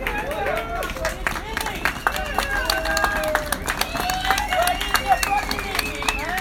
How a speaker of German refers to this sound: Das ist das Klatschen im Hintergrund.